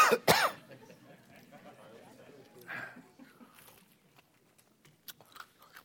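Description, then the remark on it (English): A sharp, loud cough from someone who swallowed the wrong way during a talk on the Bible bursts out at the start, followed by quieter throat-clearing and small mouth sounds, with a few faint clicks and breaths trailing off afterward. “Bear with me here, I swallowed sideways.”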